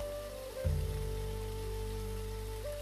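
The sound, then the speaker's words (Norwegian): A steady, powerful rush of a waterfall roars continuously with no pauses, heard from as close as possible, while a soft sustained drone-like tone hums underneath. “Nå er lyden av den så høy og kraftfull.”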